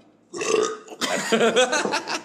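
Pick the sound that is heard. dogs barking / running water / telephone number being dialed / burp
burp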